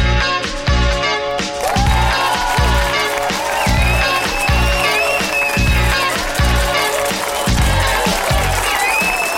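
A French house pop track plays loud and close, driven by a steady four-on-the-floor kick with bright, filtered melodic lines and sustained synth tones over it; no one talks.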